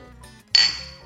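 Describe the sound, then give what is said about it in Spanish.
A single bright clink of beer glasses tapped together in a toast, ringing briefly with a clear high tone before fading, fairly loud against a quiet background. “Salud.”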